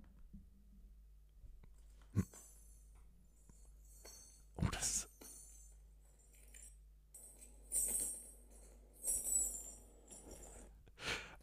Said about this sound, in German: Erklär, was genau wird da als Sound abgespielt jetzt? Das Geräusch, wenn du den Würfel würfelst. Ach, weil das ein Musical-Würfel ist.